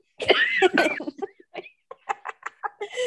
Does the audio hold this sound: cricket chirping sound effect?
no